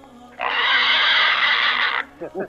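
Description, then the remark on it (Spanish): A single loud, shrill squeal from a Mexican hairless pig holds steady for about a second and a half, then cuts off abruptly, followed by a few brief spoken syllables. “El cerdo pelón mexicano.”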